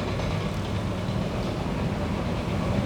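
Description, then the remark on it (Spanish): A heavy tractor engine on a beach rumbles steadily, a deep droning mechanical noise as the tractor passes behind, filling the whole stretch with no voices. “Estoy dejando detrás el ruido de, del tractor.”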